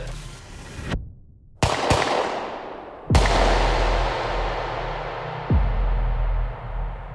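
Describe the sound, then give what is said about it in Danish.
Several loud, sharp pistol shots are fired at point-blank range at a man in Grantoften, Ballerup, Denmark, spaced irregularly, each leaving a booming, echoing tail over a low rumbling background. No one speaks. “Uden varsel trækker han en pistol og åbner på klodshold ild mod den 29-årige.”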